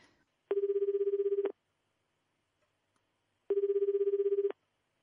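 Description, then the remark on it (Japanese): A telephone ringback tone on an outgoing call: two one-second buzzing rings separated by a long pause of silence, steady and clear, with no one talking. The call, made to complain, goes to an answering machine. “今日はあれだなちょっと電話してみようかなカレーパフェカレーパフェをのパスを僕に出したクレームの電話をしたいと思います”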